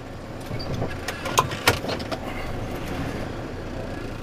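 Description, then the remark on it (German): A snow-clearing vehicle clears a small turning area, its engine rumbling steadily while a few sharp metallic clanks and knocks ring out as it maneuvers; no one speaks. “jetzt muss ich hier den ganzen Platz räumen. Ist der Umkehrplatz”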